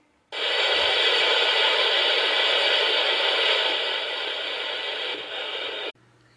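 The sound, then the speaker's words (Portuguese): A waterfall's steady, loud rushing roar fills the scene for several seconds without pause, then cuts off abruptly, leaving near silence. “Uma cachoeira!”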